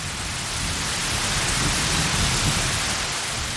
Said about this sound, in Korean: 열대의 소나기는 빗줄기가 굵었고 그 속에서 희주는 비를 맞는 게 아니라 심한 매질을 당하는 것처럼 보였다.